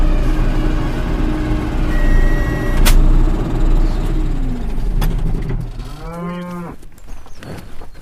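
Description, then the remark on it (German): Cattle lowing in a wooden, gable-roofed cattle barn with room for 120 cattle, at the edge of Obersachswerfen: deep, drawn-out moos over a steady low rumble, ending in one clear rising and falling bellow, with a couple of sharp clanks in between. “120 Rinder finden darin Platz.”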